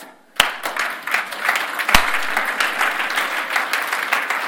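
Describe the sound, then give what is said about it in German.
A crowd gives a "Greek applause", starting abruptly with a sharp clap, then settling into a dense, steady patter of many hands clapping, with a few louder individual claps standing out. “Ein griechischen Applaus.”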